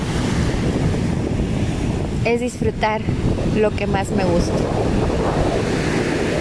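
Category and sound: nature, ocean waves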